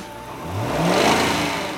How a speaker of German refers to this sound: Für alle, die gern bis zum Ende des Abspanns bleiben, ist das Autokino wohl nix. Wenn der nämlich beginnt, wird es Zeit, den Motor anzuwerfen.